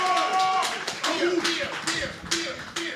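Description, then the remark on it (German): A crowd applauds steadily for a few seconds in applause for beer, a dense, moderately loud patter of clapping with a few voices cheering and calling out "Bier!" over it. “Applaus für Bier.”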